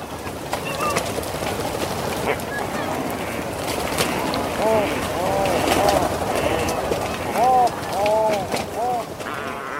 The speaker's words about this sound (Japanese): ウトウたちは夕日が沈むと島に戻ってきます何十万という鳥が一斉に戻ってくるのですバサバサという音はウトウの飛んでくる音うなるような鳴き声がウトウの声です